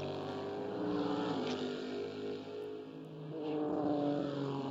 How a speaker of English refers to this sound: So cars leaving the pitch. Ryan Briscoe has gone out. Juan Montoya's gone out. Ollie Jarvis has gone out. In fact, both the Mazdas. Jonathan Bomarito as well. Matheus Leist.